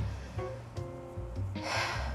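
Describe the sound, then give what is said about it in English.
A single quick, shallow breath drawn in from the shoulders rather than the diaphragm, an airy rush lasting under a second, with no talking around it. “See, I just did it from my shoulders, but when you really breathing from your diaphragm, your gut, and you can oxygenate your body from the toes to the crown”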